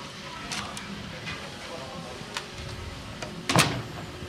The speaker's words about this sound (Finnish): Ja ovi kiinni.